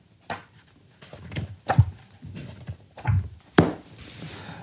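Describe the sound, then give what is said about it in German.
Pages of a very soft-covered, early photobook being flipped, four or five muffled papery flaps with dull thumps, spaced unevenly over a few seconds, with no talking. “Und das ist der Sound von einem ganz weichen, frühen Michael Wolf Buch”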